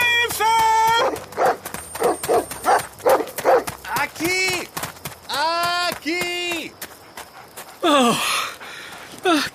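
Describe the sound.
Dogs approach at night on an orange plantation in Andalusia, barking loudly in a rapid series of sharp barks and longer drawn-out yelps, with hurried footsteps and gasping voices mixed in.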